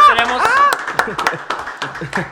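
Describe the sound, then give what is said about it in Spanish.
Scattered audience applause at the comedy show En comedia, se opina: a handful of sharp, irregular claps ring out after a burst of high, excited voices cheering at the start, with chatter underneath throughout. “hoy tenemos más aplausos, ¿eh?”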